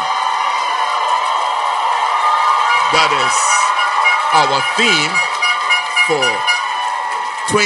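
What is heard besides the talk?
audience applauding and cheering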